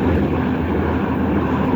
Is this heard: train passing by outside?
yes